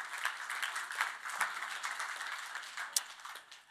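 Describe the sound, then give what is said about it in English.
An audience at a prayer meeting claps steadily for a few seconds at news that 16 people were healed, a dense patter of many hands with scattered sharper claps standing out, fairly soft overall and with no one talking. “That deserves a clap, doesn't it?”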